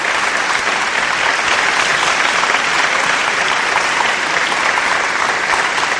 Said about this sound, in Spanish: ¡Eh, qué bonito! ¡Ah! ¡Aplausos!